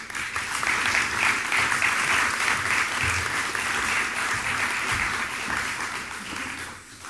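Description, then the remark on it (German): A large audience at an evening event applauds steadily for about seven seconds to welcome a guest from ESA's Earth observation programme, a dense, even wash of many hands clapping at once that tapers slightly at the end, with no talking over it. “Das ist Ihr Applaus.”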